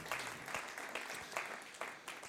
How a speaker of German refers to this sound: So gut. Merci vielmals. Lass uns einen herzlichen Applaus geben. Merci viel, vielmals.